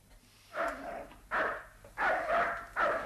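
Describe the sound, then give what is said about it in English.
A dog barks four times in a loose, uneven rhythm, each bark somewhat muffled, with quiet pauses between them and no voices; it is the Kramers' dog in the next apartment. “Is that a dog?”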